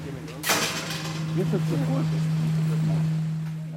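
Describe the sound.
A funicular railway car of the energy company Uniper hums steadily as it climbs along the penstock line up to the surge tank, with a sharp clunk early on and a constant low drone of the drive underneath, while someone speaks briefly over the ride noise.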